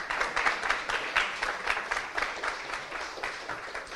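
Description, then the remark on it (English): An audience applauds steadily for a few seconds after it is announced that July 1st begins the fifth year of their independent educational organization, a dense wash of many hands clapping with slight swells and dips in loudness, no voices standing out. “Yeah, you can applaud.”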